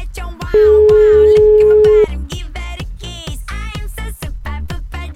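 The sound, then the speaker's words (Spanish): A single long telephone ringback tone sounds for about a second and a half, steady and loud, over a rhythmic music bed that keeps playing after it stops, while a phone call is being placed. “Estamos llamando.”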